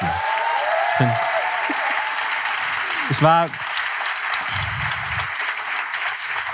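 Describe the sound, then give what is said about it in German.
A live audience at a venue claps and cheers steadily, making noise for the location, a dense, continuous wash of applause with a few whoops rising through it, while a man's voice briefly speaks over the noise. “Macht mal, macht mal Lärm für die Location.”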